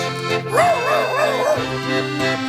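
A dog barks in a quick series of four clear yips, with a steady hum of background noise underneath and no talking.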